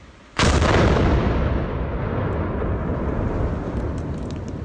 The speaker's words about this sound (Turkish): Patlamanın şiddeti ortaya çıkan yeni güvenlik kamerası kayıtlarıyla da bir kez daha gözler önüne serildi. Fabrikaya 3,5 kilometre mesafedeki bir köyde böyle kaydedildi o anlar.